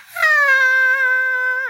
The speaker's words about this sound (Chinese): 突然，贝蒂哭了，哇！他吸吸鼻子，哼哼，踢上踢下，蹦蹦蹦蹦蹦，大声尖叫啊！